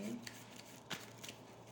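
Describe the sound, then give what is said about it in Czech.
Tarot cards being shuffled before more cards are laid out for a health reading: a few brief, papery flicks and rustles at an uneven pace, the strongest near the middle, over a low, steady background hum with no speech. “Co se týče zdravíčka, hodím ještě další karty.”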